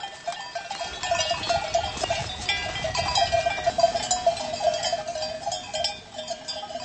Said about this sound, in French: Alors d'où viennent tous ces moutons Ils sont d'une seule provenance ou euh, ben, il, y a plusieurs propriétaires Oui, il y a plusieurs propriétaires.